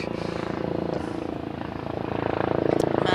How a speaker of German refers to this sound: Also jetzt im, im Moment ist Grosseinsatz, Helikopter.